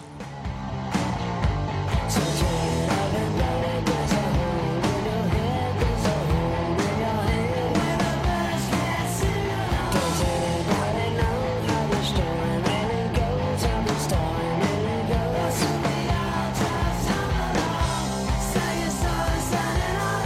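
A loud, steady stretch of full-band rock music with driving drums and layered guitars, playing continuously for about twenty seconds with no voices talking over it.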